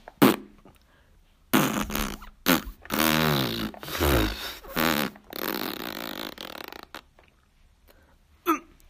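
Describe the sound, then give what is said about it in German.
A long run of loud, sputtering fart noises, several rasping bursts strung together over about five seconds, prominent, with a short extra burst near the end. “jetzt muss ich noch mehr pupsen.”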